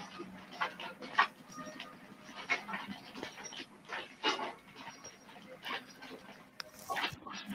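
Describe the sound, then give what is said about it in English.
A dog snorts and pants, with rapid wet breathy huffs and sniffing bursts coming in an irregular rhythm throughout, fairly loud and with no talking. “Now listen for the snorting.”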